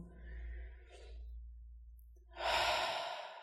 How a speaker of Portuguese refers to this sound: Então talvez você possa colocar, eu tô assim nesse momento, né, com a mão na minha barriga, na região do meu umbigo, enquanto eu inspiro e expiro.